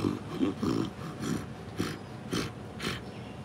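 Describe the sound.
A voice imitates a grunting growl heard from bushes, likened to a wild boar or a gorilla: a string of rough, throaty snorts and rasping bursts in an uneven rhythm, moderately loud, with no other talk.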